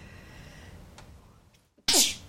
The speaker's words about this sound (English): pardon me, I don't know what's making me sneeze today.